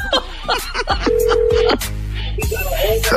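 Telephone dialing tones sound fairly loud, with a held electronic beep among a quick run of clicks and shorter tones, as a prank phone call is placed.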